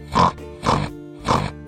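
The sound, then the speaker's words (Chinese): A voice imitates a pig's snorting oink three times in an even rhythm, in the French way of saying a pig's call, like the sound of a pig's snout: each a short, nasal, grunting burst of moderate loudness with brief pauses between. “我觉得法语的说法最像猪叫，它有点像猪鼻子发出的声音，就像这样。”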